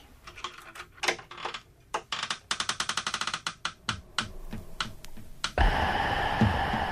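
A long run of quick metallic clicks and rattles as a key works the lock of a small, dusty trunk, followed by a sustained scraping, rustling noise as the lid is pushed open. No voices.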